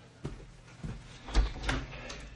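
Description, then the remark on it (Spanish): A hotel room door opens with a few soft clicks and knocks of the handle and latch, then a louder thump and rattle as it swings. It is fairly quiet, with no voices. “Avanza hacia la puerta y abre.”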